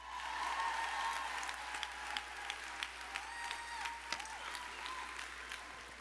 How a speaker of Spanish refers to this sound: Dale un aplauso fuerte a Dios porque Él está aquí.